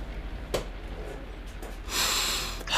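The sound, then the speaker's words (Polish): A voice imitates a very stout, sweaty, bald man of about 40 to 50 sitting at a reception, sniffing: a quick sharp sniff, a fainter one, then a long, noisy drawn-in snort near the end, with no speech. “Wyjątkowo tęgi, wręcz okrągły mężczyzna tutaj siedzi, bardzo spocony, łysy, gdzieś koło 40, 50, pociąga nosem.”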